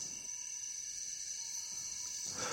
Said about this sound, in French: dans la forêt tropicale de Dzanga-Sanga, au sud de la République centrafricaine, un pays ravagé par des guerres civiles et des massacres. Le paysage sonore a été réalisé en 1994. Le chant des insectes,